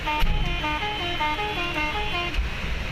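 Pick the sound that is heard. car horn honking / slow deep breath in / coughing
car horn honking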